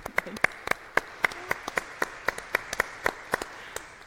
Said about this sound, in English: if you have served previously, yeah. would you please stand and we can clap. We can't shout, but we can clap.